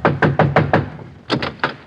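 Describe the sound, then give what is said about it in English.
Sharp knocks on John Doe's door in Allen's Alley: five quick, evenly spaced raps, a short pause, then three more, fairly loud with no voices. “John Doe's light is on. Yes, he, uh, he's probably waiting up for us. I'll knock.”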